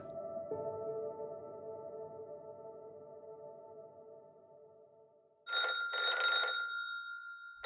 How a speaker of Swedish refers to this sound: väcks av att telefonen ringer i hennes rum på Hotell Viru.